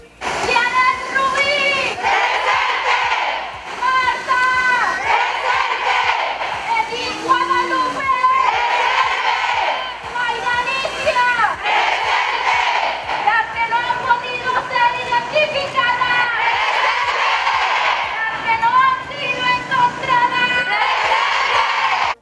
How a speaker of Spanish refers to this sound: De esta forma y bajo un grito de hartazgo, las mujeres mazatlecas conmemoraron el 8 de marzo de este 2021.